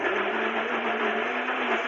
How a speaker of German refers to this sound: Man hört, dass ich ein Smoothie mache. Ich probiere mal was über die AirPods, dass man das nicht so hört.